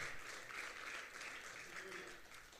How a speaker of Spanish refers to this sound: Dele un fuerte aplauso al Señor con nosotros, pastor.